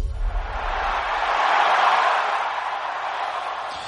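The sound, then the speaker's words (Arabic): A recorded stadium crowd roars steadily, played on Mix FM radio, a broad wash of many voices that swells toward the middle and eases slightly near the end, with no one speaking over it. “شغلنا لك صوت الجمهور”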